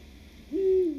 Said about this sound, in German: Gleich hören Sie den zweiten Uhu. Sie sind auf der Jagd.